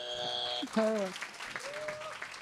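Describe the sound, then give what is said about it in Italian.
A live audience claps steadily and densely for a couple of seconds, the applause even, with a few voices whooping and calling out over it; the audience applauds on cue when a button is pressed, some with pizza in their hands. “non è registrato l'applauso.”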